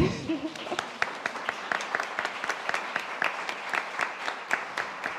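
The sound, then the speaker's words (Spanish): An audience claps steadily for several seconds as a panel speaker is introduced, a dense patter of many hands forming a continuous round of applause with sharp individual claps standing out, at moderate loudness. “Aplauso, por favor.”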